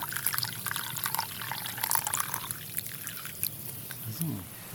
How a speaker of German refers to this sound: legt die Steine in die Glut und füllt Wasser in die Schale.